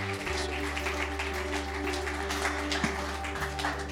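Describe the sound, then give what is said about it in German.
An audience applauds steadily to welcome a speaker on stage, a dense wash of many hands clapping that holds at an even level for the full few seconds, with a low steady hum running underneath. “Nochmal einen fetten Applaus und wir freuen uns auf das, was du zu sagen hast.”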